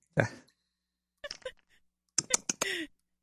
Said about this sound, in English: Well, I'm cracking this beer to you tonight. It's the Coors